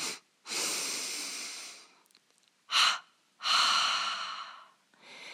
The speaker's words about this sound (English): So, let's try that together. So, completely exhale and then double inhale.